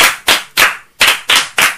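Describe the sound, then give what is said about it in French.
A classroom group claps together for a pupil during a maths lesson in a rhythmic pattern: six sharp, loud, unison claps with a short pause midway, and no talking over them. “Un bravo pour lui.”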